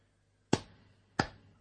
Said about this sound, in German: Ein müdes Klatschen und ein Punkt für die Hörer.